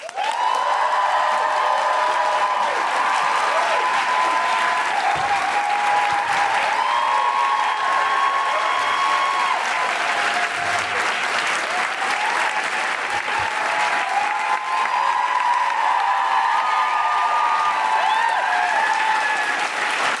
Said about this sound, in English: Please welcome to the stage and make wonderful, woohooing, groundling, extraordinary, guilty feminist noises.